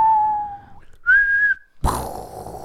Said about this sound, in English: Bomb drop.